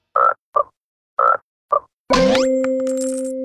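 In the cartoon A-U, a frog croaks four times in two quick pairs, short raspy bursts, followed by a loud bright metallic clang as a coin comes out, ringing on with a sustained tone and slowly fading.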